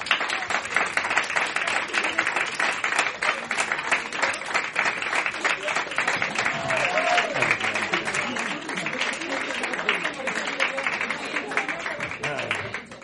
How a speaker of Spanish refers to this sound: Quiero pedir un fuerte aplauso para la invitada de esta noche.